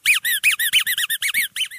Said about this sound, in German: es sieht zwar aus wie eine Gummigiraffe, aber irgendwie, es entwickelt einen besonderen Geruch und man kann es halt quietschen